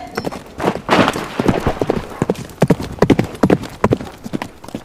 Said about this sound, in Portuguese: Você quase foi atropelado por um cavalo com um Halfling em cima.